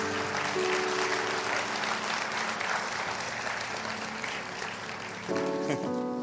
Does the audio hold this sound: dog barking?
no